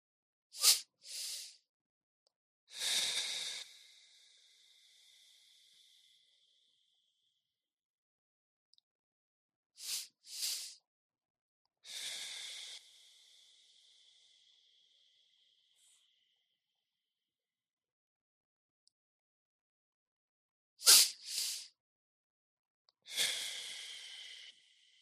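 Three slow, deep breaths during a guided breathing exercise, each a quick breathy intake followed by a long, hissing exhalation that fades out, spaced widely apart with quiet between them. Fairly soft, with no talking.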